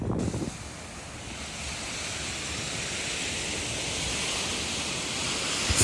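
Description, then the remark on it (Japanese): Ocean waves and wind at a beach in Los Angeles, California make a steady, loud rushing roar, with low rumbling buffets of wind across the microphone and a constant hiss throughout; no one speaks. “それは当然 LA だから海岸に行って撮った方がいいだろうということでビーチに行って撮ってみましたところがうまくいかなくてその様子からちょっと聞いてみてください全然うまくいかなかったんですよ”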